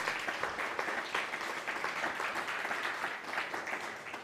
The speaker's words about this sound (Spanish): Bueno, pues denle un fuerte aplauso al bendito sea. Baruch Hashem.